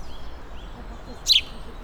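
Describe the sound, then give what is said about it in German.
A male house sparrow sitting at the entrance of a nest box about three metres high, one metre beside a main path, gives a single sharp, bright chirp, rising briefly above a quiet outdoor background with faint bird notes. “Da sitzt ein Sperlings, ein Haussperlingsmännchen davor und jetzt sitzt er am Eingang und singt.”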